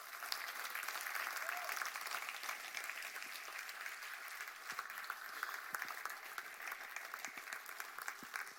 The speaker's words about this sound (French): Est-ce qu'on peut applaudir Jésus